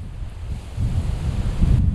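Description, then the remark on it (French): Strong wind buffets the microphone in a steady low rumble, swelling and gusting louder toward the end, with no voices over it. “Il y a beaucoup de vent, beaucoup de vent.”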